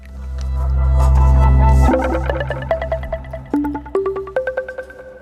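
A short radio separator jingle: a swelling low synth drone gives way to a quick, bright run of plucked, bell-like notes stepping upward, loud and up close with no voices.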